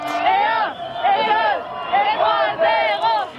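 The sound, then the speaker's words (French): A big celebrating crowd surrounding a bus on the Champs-Élysées in July 1998 roars and chants, many voices rising together in repeated rhythmic bursts, loud and dense throughout. “D'autres catastrophes et attentats suivront à New York ou Paris et quelques moments de joie aussi, comme ces images d'un bus avalé par la foule sur les Champs-Élysées, un jour de juillet 1998.”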